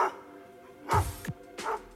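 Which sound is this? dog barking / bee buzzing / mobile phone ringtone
dog barking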